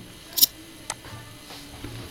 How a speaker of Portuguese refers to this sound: Ô, oh, velho, peraí, deixa eu só fechar a porta aqui rapidão.